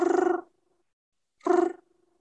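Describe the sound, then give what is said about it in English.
A voice imitates the soft, contented purring trill of a hen being stroked, produced twice as short rolling bursts separated by a pause, fairly loud with a warm vibrating texture. “Their faces are very very sensitive, and so they will start to purr like a cat almost.”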